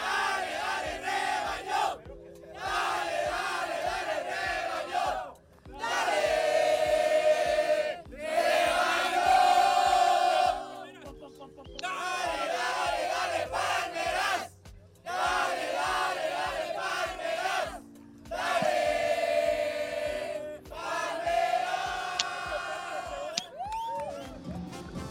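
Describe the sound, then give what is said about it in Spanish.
A large crowd of Chivas (Guadalajara) supporters at a home match, the clásico nacional against América, chants in unison, rising and falling in loud rhythmic phrases separated by brief pauses, with voices blending into a booming, sustained roar. “Obvio, los grupos de amigos que habitualmente se reúnen cada que juega Chivas de local también tomaron su lugar, como las palmeras, y desde el convivio dejaron sentir su apoyo total al Guadalajara.”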